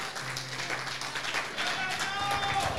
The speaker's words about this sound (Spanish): Alguien que crea y se ponga de pie y le brinde un fuerte, fuerte aplauso al Cristo vivo.